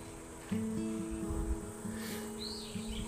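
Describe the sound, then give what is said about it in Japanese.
Faint bird calls chirp in a forest in Japan in summer, a brief warbling phrase rising near the end, set against a steady drone of cicadas and a low continuous hum, heard while running along a forest course. “まあ、セミもね、じーっと鳴いてますし、鳥の声も聞こえます。”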